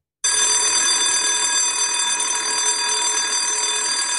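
A loud electric school bell rings continuously, a harsh metallic clanging that starts abruptly and holds steady without pause, with no voices over it; a classic Italian school bell marking the start of the school year.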